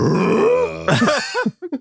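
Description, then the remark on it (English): A voice imitates a ship's groaning: a long, low, creaking moan that wavers in pitch, then breaks into several short rising-and-falling grunts trailing off into brief clipped bursts. “you hear the ship make a groaning sound.”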